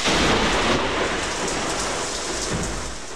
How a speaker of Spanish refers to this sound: Así cueste creerlo, exactamente 10 años más tarde, y también un 24 de octubre, pero de 1967, de nuevo una tempestad de granizo azotó a Caracas.